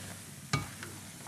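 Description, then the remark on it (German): A single sharp scrape of a spoon against a hot pot while stirring a sauce with white wine and soy sauce stands out over a soft sizzling background, followed by a fainter clink, fairly quiet overall. “Super und umrühren.”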